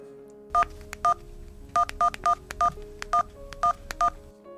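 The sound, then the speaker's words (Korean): A quick run of about ten telephone keypad DTMF tones, short clean dual-tone beeps pressed in an uneven rhythm as the other party's phone number and the pound key are entered for a voice mailbox service, clear with no voices. “삐삐와 핸드폰이 보급되기 전 우리에겐 음성 사서함이라는 게 있었습니다 상대방 전화번호와 우물정자를 눌러주세요”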